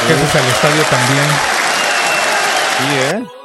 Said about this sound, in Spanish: Bienvenida. Ya llegó, ya se hizo presente también, te damos tu ovación